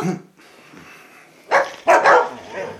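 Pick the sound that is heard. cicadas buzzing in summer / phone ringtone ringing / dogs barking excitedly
dogs barking excitedly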